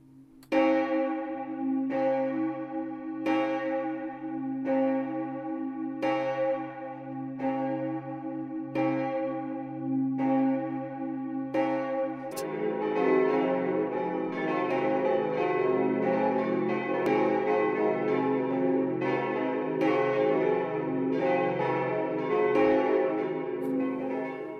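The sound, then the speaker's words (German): Church bells of St. Anton in Haussam, hung in a new oak bell frame, ring out with steady, evenly spaced strikes and long resonant tails; midway more bells join into a dense, overlapping full peal that stays loud and continuous to the end, with no talking. “Die Glocken von St. Anton in Hassam.”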